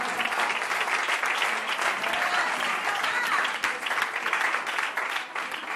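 Sustained audience applause for Christ at a church service, a dense steady wash of many hands clapping at an even level for several seconds, with no voices standing out above it.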